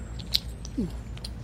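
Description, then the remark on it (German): Someone chews gum after its sugar has run out: soft, moist mouth sounds with a few faint smacks and clicks over a low background rumble, and no talking. “Jetzt ist der Zucker zu Ende. Wie weiter? Kauen.”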